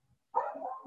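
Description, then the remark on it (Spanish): One of the speaker's pet dogs lets out a single drawn-out bark after a brief silence, moderately loud, with no one speaking. “Entonces, eh, regresando al tema principal, perdón por mis perros, siempre van a estar presentes en estas grabaciones.”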